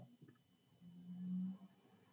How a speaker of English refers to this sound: Yeah. It was a very loud car that just drove.